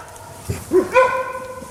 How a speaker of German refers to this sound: Man hört ja auch die Hunde, ne? Genau. Die bellen komplett anders. Ja. Die bellen ganz, ganz häufig hintereinander. Und viel, und viel häufiger und viel lauter.